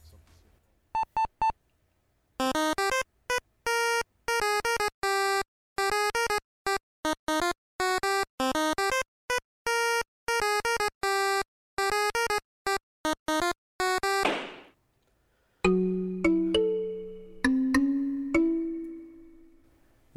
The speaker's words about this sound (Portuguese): Sem mais delongas, chama a vinheta.